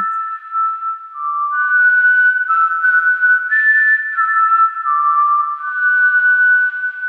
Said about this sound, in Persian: صدایی که به مرور و کم کم بلندتر می شد و بهتر به گوش می رسید. صدای سوت ویز همونطور که درختار رو دونه دونه ناز و نوازش میکرد داشت براشون به آرامش بخشترین حالت ممکن سوت میزد.